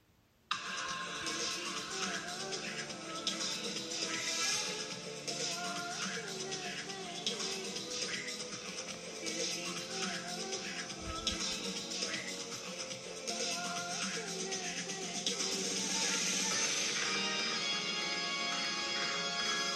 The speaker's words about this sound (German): Okay, jetzt kommen wir zu Orochimaru. Okay. Orochimaru, also ich finde, bei Orochimaru ist die Musik irgendwie so ein bisschen so gruselig, so unheimlich.